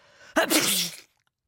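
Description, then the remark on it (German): A single stifled sneeze from a person holding their nose to suppress it bursts out abruptly, breaking the silence, a strained, choked mix of cough-like catch, grunt and breathy hiss, fairly loud, then cuts off into silence. “hielt sich panisch die Nase zu und versuchte mit aller Macht den Niesreiß zu unterdrücken, doch das hatte leider nur zur Folge, dass das Niesen, das nun die Stille zerriss, sich wie eine gespenstische Mischung aus Husten, Grunzen und Zischen anhörte.”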